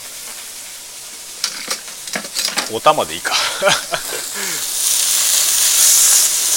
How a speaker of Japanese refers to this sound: うるさいでしょこのもやし音はうるさいよね